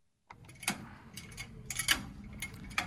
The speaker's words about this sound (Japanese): これがですねあの CD の棚の音ですねいわゆるなんか図書館の本棚を回すハンドルみたいなのを想像してもらうといいかなと思います